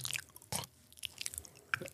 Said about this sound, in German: Also das war jetzt fies. So ein, so ein Schmatzen. Schmatzen. Ja, genau so.